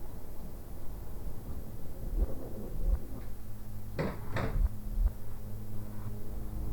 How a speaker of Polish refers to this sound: Teraz proszę Państwa zamknę drzwi.